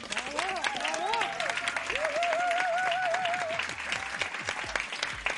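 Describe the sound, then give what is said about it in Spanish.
An audience breaks into sustained applause for two women praised for their great work, a dense wash of many hands clapping at a steady level, with cheers and whoops rising over it at times. “Yo creo que se merecen un, aplauso, ¿verdad?”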